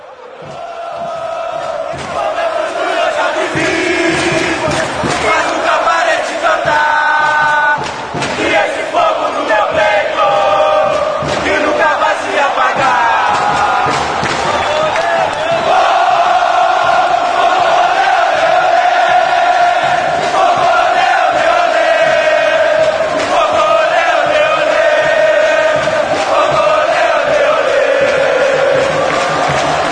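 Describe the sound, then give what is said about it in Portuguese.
A huge crowd of Botafogo football supporters sings a chant in unison during the Libertadores campaign, voices merging into a loud, sustained melodic roar that carries on without a break and swells a little louder midway through. “O Som das Torcidas #49 Botafogo”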